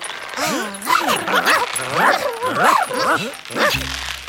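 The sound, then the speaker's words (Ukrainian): A small dog named Mo barks and yips over and over in quick, excited bursts, fairly loud, with whiny rising-and-falling tones, before the barking stops and a low steady hum remains. “Отже, чоловік на ім'я Джо, його песик на ім'я Мо, хлопчик на ім'я Лео, дівчинка на ім'я Індиго та біленький голуб, який свого імені не назвав, почали розминатися.”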